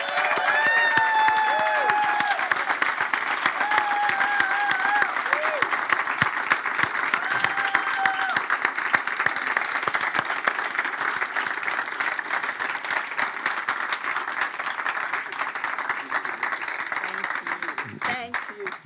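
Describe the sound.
An audience breaks into sustained, dense applause that holds steady for the whole stretch, with faint whoops and raised voices rising over the clapping early on.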